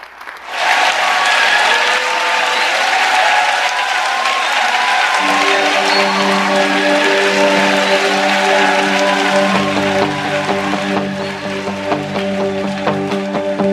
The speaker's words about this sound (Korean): 자, 오늘 목사님 나오실 때 큰 박수로 한번 환영하겠습니다.